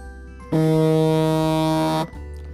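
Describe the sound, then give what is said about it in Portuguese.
An alarm clock set for 4:40 in the morning goes off with a single loud, steady buzzing tone that holds for about a second and a half, then cuts out, leaving a low background hum. “Até despertou o alarme que é 4:40 da manhã.”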